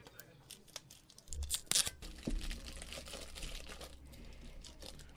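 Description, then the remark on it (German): Crinkling and tearing of paper as individually paper-wrapped malt whisky fudge sweets are unwrapped, a steady rustle with a louder crackling burst partway through. “Ich packe mal aus.”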